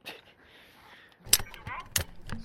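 A metal gate clanks open with several sharp, bright clinks and rattles of metal, coming in quick bursts after a brief quiet stretch.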